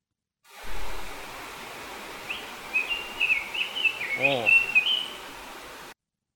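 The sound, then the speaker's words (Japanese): Bird calls recorded outdoors on a mountainside while mountain climbing: a series of bright, high chirps and trills that grow busier toward the end, carried over a steady rushing hiss of wind or water. “登山した時の鳥の声”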